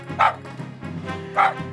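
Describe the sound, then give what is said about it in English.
A small dog, a chihuahua, gives two sharp, high-pitched barks about a second apart, with a steady low hum of music running underneath. “Only one sound would scare this wily chihuahua.”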